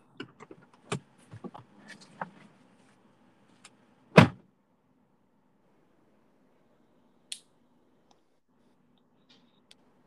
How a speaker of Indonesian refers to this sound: eh pos dulu aku buka pintu dulu